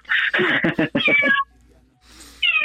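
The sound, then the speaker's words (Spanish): A cat meows loudly, a long drawn-out yowl that wavers and pulses, then after a brief quiet pause another short meow begins. “Este gato es un terremoto.”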